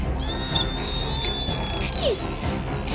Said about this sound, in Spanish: Escucha, Yogi. Escucha eso. Es el sonido de los delfines.